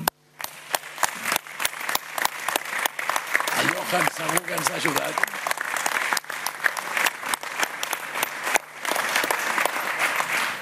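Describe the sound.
Sustained audience applause, a dense, steady patter of many hands clapping that fills the whole stretch, with a man's voice speaking briefly over it partway through; the applause is a tribute to Johan Cruyff.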